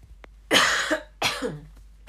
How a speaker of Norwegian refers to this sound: Unnskyld, nå må jeg hoste litt.